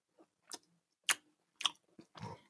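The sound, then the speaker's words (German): Wet smacking and chewing sounds as a person eats a Niederegger marzipan praline from a marzipan calendar, a handful of sharp mouth clicks and squelches at irregular intervals, ending in a longer moist chewing burst. No talking. “die Leute, die das Schmatzen in dem Podcast stört, mir scheißegal.”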